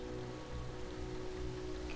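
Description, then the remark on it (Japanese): Steady rain falls continuously amid a strengthening north wind, a dense, even hiss with a low rumbling undertone, constant throughout, with no voices. “北風はさらに激しさを増す雨も相変わらず”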